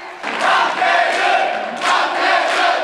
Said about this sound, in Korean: 1회전을 내주고도 2회전과 3회전을 연속으로 이기자 환호성이 터집니다.